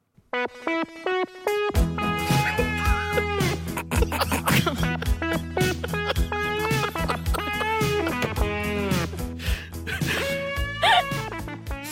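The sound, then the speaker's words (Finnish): A buzzy, synth-like guitar solo plays over a steady pop backing track, its bent, sliding notes sounding rubbery and almost flatulent. Someone laughs briefly near the start. “… kitarasoolo kuulostaa siltä kuin joku pierisi syntikkaan.”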